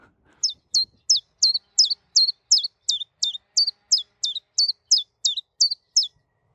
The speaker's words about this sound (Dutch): Oké, nou, wie geen chipjas wil horen, moet dus even een zonvakantie boeken ver buiten Europa. En voor wie hem wel wil horen, nog eventjes één keer de chipjaf met misschien op de achtergrond een, een kettingzaag.